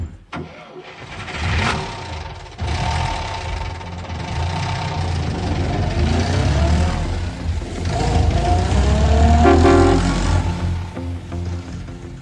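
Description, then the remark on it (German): A short groundhopping music jingle built from car engine sounds: an engine starts, then revs and idles loudly, its pitch rising and falling steadily for several seconds with no voices. “soll ich unsere Musik zum Groundhopping ja. machen?”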